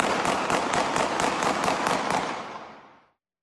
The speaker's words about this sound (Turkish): 2024'ü silahla kutlayan kendini bilmezler de oldu. İstanbul, Sakarya, Gaziantep'te uzun süre silah sesleri susmadı.